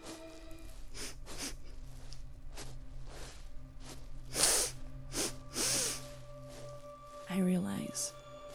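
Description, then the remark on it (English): A voice imitates an animal sniffing at the entrance of a tent, with a few sharp, breathy nasal bursts spaced a second or two apart, fairly loud over a quiet background hum. “that it's sniffing.”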